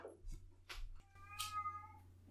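A cat meows a few times, short calls followed by a longer, drawn-out meow with a clear tonal pitch, with a steady low hum beneath.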